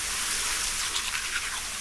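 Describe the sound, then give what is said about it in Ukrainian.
A shower sprays water in a steady, hissing rush, holding an even level throughout with no voices. “Але добре, що люди придумали цитрамон, душ”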